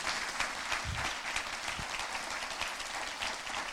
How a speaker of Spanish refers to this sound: Si usted lo cree, denle un aplauso fuerte a Jesús, el mejor aplauso que usted pueda darle.